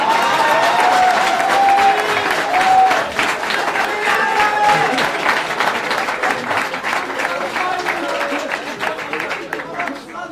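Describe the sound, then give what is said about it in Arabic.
Sustained audience applause on a TV programme welcoming a guest fills the whole stretch, a dense steady patter of many hands clapping, with crowd murmur and scattered voices mixed in beneath it. “يعني هذه الحفاوة الشديدة بالجيل تخليني أبكي”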